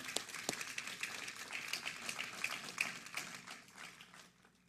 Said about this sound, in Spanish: pero vamos a darle un fuerte aplauso a nuestro pastor.